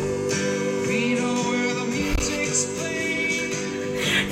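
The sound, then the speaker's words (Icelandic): A recorded song plays steadily from a phone, a full mix of sustained melodic tones over a low beat at an even, fairly loud level, with no one talking over it. “ég verði eitthvað bara að taka upp lægi og sína ykkur hvað ég er að blasta sko ok, þú veist, þetta er það sem ég er að blasta skilji”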